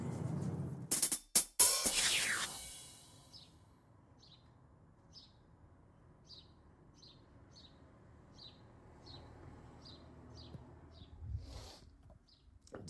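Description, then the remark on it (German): A small bird sitting directly under a window chirps repeatedly in short, evenly spaced high-pitched notes, over a quiet background after a brief burst of loud handling noise at the start. “Direkt unterm Fenster sitzt die kleine zwitschernde Drecksau.”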